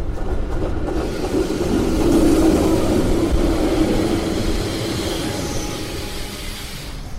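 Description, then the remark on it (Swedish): A steady low rumble of a tram in motion around four o'clock, riding from a school back to a prison, wheels and motor droning continuously from inside the carriage, swelling slightly midway with no voices. “Klockan närmar sig fyra och vi tar spårvagnen från skolan tillbaka till fängelset”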